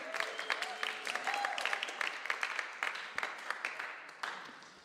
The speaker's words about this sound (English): Why don't you come join us? A little applause is appropriate.